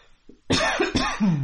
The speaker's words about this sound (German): Husten ist auch so ein nerviges Geräusch, ne? Ja, aber dafür kann man nichts.